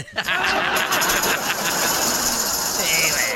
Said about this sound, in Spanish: Y a me estoy usando la licuadora para hacerme un licuado, güey. Y ya me di cuenta que vas a ver mi licuado de plátano, vas a ver a chile guajillo, porque no la lavé bien